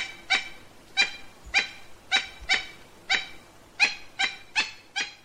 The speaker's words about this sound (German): Das ist ein Tukan. Der beste und schönste Vogel der Welt mit Abstand, finde ich jedenfalls.